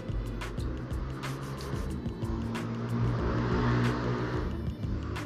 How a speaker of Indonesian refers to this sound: wow knalpot ya seperti itulah salah satu gangguan kenapa kita menamakan knalpot knalpot ya, seperti itu karena ini terganggu seperti ini tidak enak sekali kan waktu ngobrol seperti ini